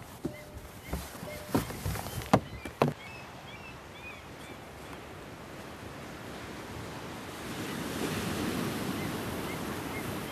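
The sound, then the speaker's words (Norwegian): Steady wind rushes outdoors by the sea at the school building in Hanningberg, heard from the lee side; the wind is not stormy. A broad hissing roar with surf-like texture, a few knocks and bumps early on, and a stronger gust swelling near the end. “Står vi i lea. Skolebygningen blåser litt, men det er ikke uvær på noen måte.”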